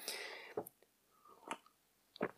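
Someone sips coffee: a brief airy slurp, then three short wet gulping sounds spaced out over a couple of seconds, quiet between them, with no talking.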